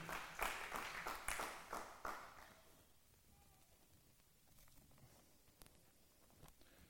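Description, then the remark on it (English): An audience claps their hands for Jonathan in a brief burst of applause that fades out after about two seconds, leaving a quiet stretch with a few faint, scattered sounds. “Give Jonathan a hand clap.”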